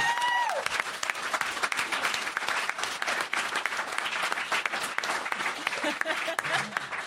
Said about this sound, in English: Congratulations. You. Yeah, yeah, that's it. I want to give another round of applause.